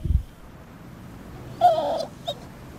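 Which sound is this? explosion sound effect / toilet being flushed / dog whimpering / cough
dog whimpering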